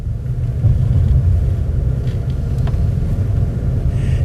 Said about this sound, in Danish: Det man kan høre her, det er rumlen fra en sovevogn på vej ned igennem Europa